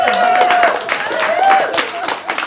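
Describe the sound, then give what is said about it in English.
A crowd applauds steadily with dense overlapping claps, while raised voices cheer and whoop above the clapping, staying loud for the whole stretch. “But before you cheer and applaud too much, just 3% is enough to upset the apple cart, so to speak.”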